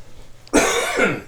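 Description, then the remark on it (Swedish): A single harsh cough from a person who still has a lingering cough bursts out abruptly and rasps for most of a second before trailing off, with no talking alongside it. “Ursäkta mig, jag har hosta fortfarande.”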